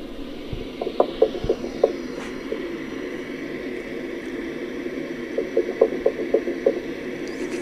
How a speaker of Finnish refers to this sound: Tässä on meidän mittalaitteen äänittämiä niin sanottuja koputuksia. Emmekä usko, että se johtuu meidän narusta tai ankkurista, Saattaa olla, että, että joku hylje tuota siellä ihmettelee, että mikä laatikko tämä on.